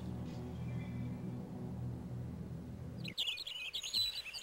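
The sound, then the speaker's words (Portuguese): A low, steady hum fills the first few seconds, then it cuts out and a bird breaks into quick, bright chirping and trills, clear, with no talking. “Aliás, se ouviram algum barulho com uma voz extra, ele cantando.”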